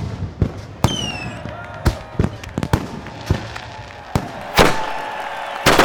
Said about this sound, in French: Les feux d'artifice du 14 juillet.